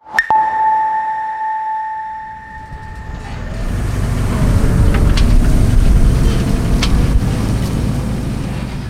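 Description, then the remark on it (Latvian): After a steady high electronic tone fades out, a tractor's engine rumbles in with a deep, continuous, loud drone, with faint mechanical clicks over it and no voices, as a farmer in Latvia sprays a chemical onto a field from a large tank on a towed trailer. “Kāds zemnieks Latvijā miglo lauku ar traktoru.”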